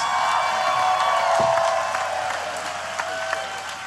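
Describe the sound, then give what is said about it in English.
A crowd applauds and cheers steadily for Freddie Ljungberg throughout, dense clapping with a few higher whoops rising above it, easing slightly toward the end. “Let's hear it for Freddie Ljungberg and the mighty, mighty, mighty, mighty”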